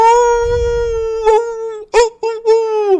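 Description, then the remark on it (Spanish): A person imitates a wolf howl, holding a long, steady wavering tone for about three seconds with a couple of brief breaks and swells, loud. “y estas noticias, como siempre, pues las trae en la única personalidad, el que llega aullando”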